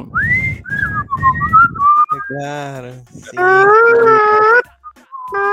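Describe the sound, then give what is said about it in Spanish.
A person whistles a short sliding tune imitating the horn call of an ice cream cart vendor, followed by loud, sustained horn-like vocal tones, clear with brief pauses between phrases. “¿El tío silba o es una grabación del silbido?”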